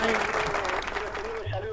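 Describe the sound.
A studio audience applauds a rock musician with steady, dense clapping that fills the whole stretch, while a voice speaks over the noise and a low hum enters near the end.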